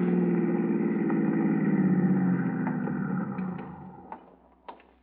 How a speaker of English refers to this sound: Hey, uh, uh, pull into that toll plaza for a second, will you? I want to check with the boys.